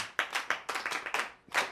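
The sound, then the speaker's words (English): A group of children in a classroom clapping together for a classmate who answered a question about policemen, a quick burst of about seven or eight claps, slightly uneven in rhythm, moderately loud, with no talking over it. “Yes, please clap for him.”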